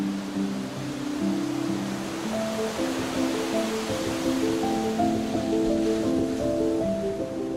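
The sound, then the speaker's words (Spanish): A steady wash of ocean surf rushes continuously at moderate loudness, with soft sustained musical notes layered over it; no one speaks. “Estos viajes representaban la más grande fascinación que había en mi vida, pues me permitían entrar en contacto directo con el mar, una presencia que siempre me ha dominado.”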